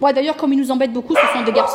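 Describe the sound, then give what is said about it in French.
A dog barks repeatedly, its sharp yaps overlapping a person talking, with the barking growing louder and denser in the second half. “Donc ça, c'est pas un acouphène, c'est le chien qui aboie.”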